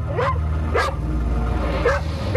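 dog barking

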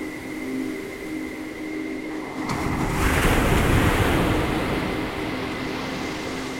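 sea waves breaking

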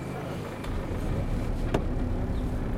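car driving slowly

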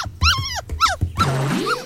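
domestic cat vocalizing

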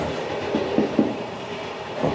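inside a moving train

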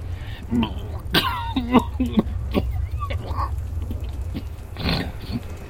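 harsh coughing fit

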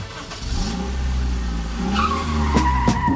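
car tires screeching

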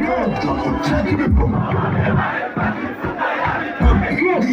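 concert crowd cheering

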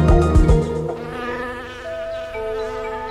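bee buzzing

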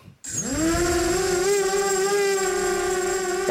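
drone buzzing

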